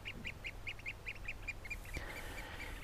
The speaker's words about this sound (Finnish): Meriharakoiden ääni on kimakka. Linnut lentävät nokka auki ja huutavat niin, että sen kyllä huomaa.